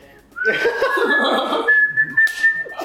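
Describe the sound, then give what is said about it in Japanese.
A thin, wavering whistle held steadily for over two seconds, a person imitating the weak, feeble whistle of someone hoping the other party will call back after a phone call was cut off, with breathy murmuring sounds mixed in beneath it. “本当は弱々しい口笛弱々しい口笛を戻ってこいと”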